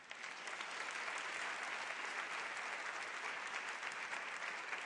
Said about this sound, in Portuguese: Se você crê nisso, aplauda Jesus.